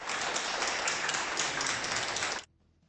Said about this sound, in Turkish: Bolu'da 80 ve 81 yaşlarındaki yaşlı çiftle Sakarya'da koronavirüs tedavisi gören 5 hasta yine alkışlarla taburcu edildi.